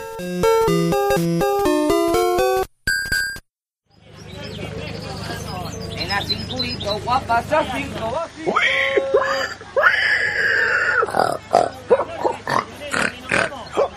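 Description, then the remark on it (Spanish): A short musical jingle opens, then a voice launches into exaggerated piggy grunts and squealing oinks, a lively run of snorts mimicking a pig, fairly loud. “Aquí está vuestro vendedor favorito, el cerdo, el gorrinazo, el cerdo negro con el parche en el ojo.”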